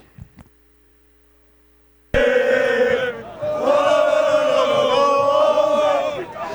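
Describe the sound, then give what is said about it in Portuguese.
After about two seconds of near silence, a loud crowd of football fans suddenly erupts, cheering and chanting together in a dense, sustained roar that carries on to the end. “Essa é a torcida”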